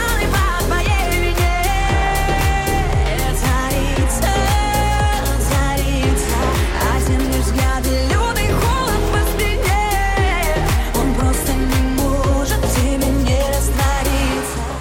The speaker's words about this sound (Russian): Главный хит исполнительницы звучит так.